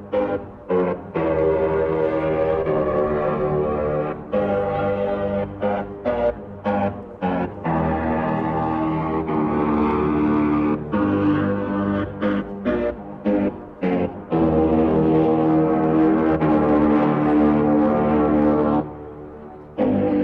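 A loud ship's horn blasts out song melodies in sustained and short rhythmic notes, with brief gaps between phrases, sounding powerful and reverberant over Hamburg harbour as the ship sails out.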